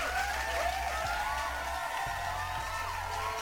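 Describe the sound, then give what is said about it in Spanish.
Steady burst of clapping from a crowd in tribute to Casito Sama of a band, dense and continuous for a few seconds, with faint whistles and cheers rising over it. “un pinche aplauso, Casito Sama, donde quiera que esté.”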